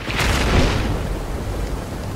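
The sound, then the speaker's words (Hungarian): A sharp crack of thunder from a lightning strike bursts out, then rolls into a low, sustained rumble that lingers without fading much. No voices are present. “Villámlik meg. Itt egy becsapódás.”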